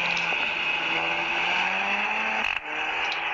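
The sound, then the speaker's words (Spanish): A car engine revs steadily upward in pitch, cuts off briefly near the end as if shifting, then picks up again, sounding slightly tinny, played back from a video through a speaker with headphones unplugged. “de verdad es un auto que te transmite mucho con tan solo ver este video”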